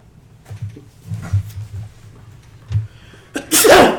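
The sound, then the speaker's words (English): A single loud sneeze bursts out near the end, a sharp explosive blast following a few seconds of quiet low rumbling and faint background murmur. “Bless you.”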